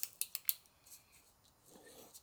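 A pen scratches quickly across a surface while drawing a quick picture of a honeybee's body: four sharp, scratchy strokes in a rapid row, then softer, longer squeaky lines. Quiet throughout, with no talking.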